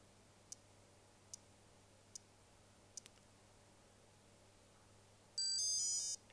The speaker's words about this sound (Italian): Quel ticchettio che sentite non è altro che il ticchettio che ci mm, sta a indicare che l'accordatore sta aspettando il suono della corda.